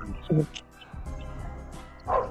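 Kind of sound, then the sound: animal, dogs barking and whimpering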